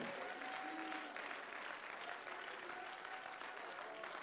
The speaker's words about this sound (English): I'm here because God was good enough to allow me to be here this morning. Hallelujah. Cup your hands and give a little praise unto the Lord.